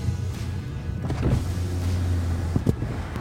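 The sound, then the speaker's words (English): An electric convertible roof motor on an i8 car, lowering the roof on a sunny day, whirs steadily with a low sustained hum, punctuated by a couple of mechanical clunks near the end, with no talking over it. “I'm gonna put the roof down.”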